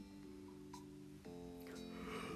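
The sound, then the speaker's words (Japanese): A drawn-out, voiced yawn from one person, fairly quiet, stretching over a couple of seconds with a brief catch midway before trailing off breathily. “すいませんあくびが出てしまいました”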